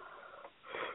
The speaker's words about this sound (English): Ooh, hmm, excuse me. Hmm. I'm trying not to yawn yawning, into the phone. Yeah. Oh, I'm, I'm attempting not to.